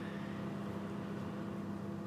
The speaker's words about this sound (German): So, der Teller dreht sich, also die Mikrowelle funktioniert und bestrahlt jetzt sozusagen unser Schweineohr.